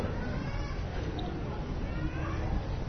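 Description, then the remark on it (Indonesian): A cat meows faintly a couple of times, thin and drawn out, buried in a dense background hum and murmuring voices. “Pak ada coaching tuh Pak? Hah? HP no, kucing no.”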